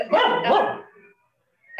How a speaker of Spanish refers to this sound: sentarnos derechos y agradecer a los perritos que ladran y a todos los seres que nos acompañan, porque estamos muy bendecidos.